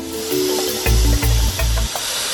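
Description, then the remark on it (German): A snake sound effect: a steady, airy hiss runs throughout, with three heavy low throbbing bursts in quick succession midway. It sounds fairly loud, with no voices. “Und eine Schlange, die ganze Menschen verschlingen kann.”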